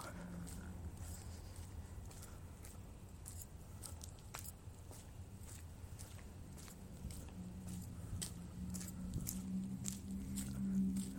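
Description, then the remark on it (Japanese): Quiet outdoor ambience in a park at night, around 23:57, in a riverside town in Saitama, Japan, with a low steady hum, scattered soft footsteps and faint rustles, and a murmur that grows slightly louder toward the end. “公園ですね公園の夜ですね、まあ、時刻は23時57分です結構遅い時間ですね誰もいないのかなそんなことはないか”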